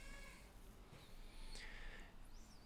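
The speaker's baby cries faintly in the background, thin wavering wails rising and falling intermittently, quiet against low room noise.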